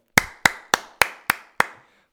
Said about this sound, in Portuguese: palmas.